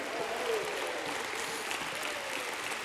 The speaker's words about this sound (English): If God's made a way, stand up and give Him a hand clap of praise